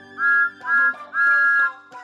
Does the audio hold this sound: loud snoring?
no